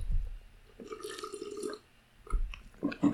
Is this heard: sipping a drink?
yes